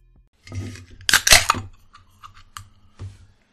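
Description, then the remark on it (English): Sharp crack of the pull tab on a can of Crook and Marker organic supergrain alcohol hard seltzer, then a short fizzing hiss and a few small metallic clicks and scrapes as the can is handled. No one speaks. “Did you just open a can of tuna for your cat or what? No, I opened a crook and marker organic supergrain alcohol.”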